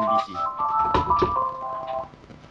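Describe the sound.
A phone notification for a Facebook message plays a bright, repeating electronic melody for about two seconds, clear, while people talk quietly underneath and a soft thump sounds partway through.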